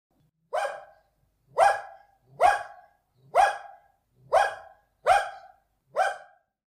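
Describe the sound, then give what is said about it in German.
A dog barks seven times in a steady, evenly spaced series, each bark short and fairly loud, with near silence between them and no voices. “den Hund, der hat aber leider keine Zeit, weil er mit Herrchen und Frauchen schon was vorhat.”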